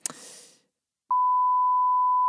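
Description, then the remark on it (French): A short, hissy burst fades into a moment of silence, then a loud, steady censor bleep cuts in over a name and holds a single flat pitch until the end. “On bipera, bien entendu.”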